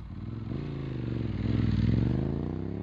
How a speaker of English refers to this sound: Because this is your fucking motorcycle. Yeah, the motorcycle came in the wrong fucking